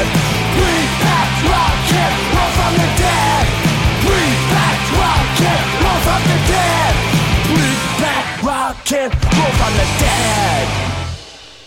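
A loud, high-energy rock and roll song with raw, shouted vocals over a dense, driving band, playing steadily for about eleven seconds before cutting off abruptly.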